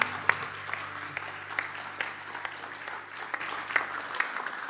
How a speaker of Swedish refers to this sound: And can we just say thank you to the worship team? Kan du bara ge lovsångsteamet en varm applåd?